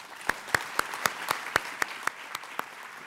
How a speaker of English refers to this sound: Let's give them a round of applause.